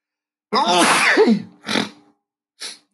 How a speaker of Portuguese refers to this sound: Desculpem, espirrei aqui.